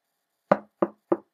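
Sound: knocking on a door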